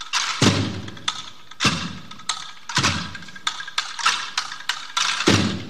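The drum band of the Congregació de la Soledat, formed in 1991, plays for Holy Week a steady, heavy rhythm of booming bass-drum thuds with crisp snare rolls and rattles filling the gaps, loud and insistent with no voices.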